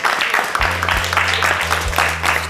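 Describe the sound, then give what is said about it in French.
Audience applause fills the space, a dense steady patter of clapping with a low sustained hum running underneath, moderately loud throughout. “Ok, on peut l'applaudir encore une fois, s'il vous plaît.”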